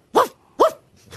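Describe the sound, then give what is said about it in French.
A voice imitates a dog barking, giving two loud woofs about half a second apart, then a softer third bark trailing off at the end. “Bon, c'est bon, c'est qu'un chien.”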